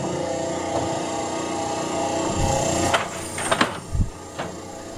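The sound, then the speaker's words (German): Louvre shutters shift with a steady mechanical whir in a room with a gearbox underfoot, then clatter in a few sharp wooden knocks and rattles toward the end, with no talking. “Was man gerade gehört hat, sind die Jalousien.”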